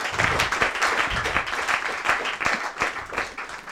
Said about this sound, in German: Danke, dass du gekommen bist und ähm, ja, nochmal einen schönen Applaus für den spannenden Vortrag und an alle für euch, für die Diskussion.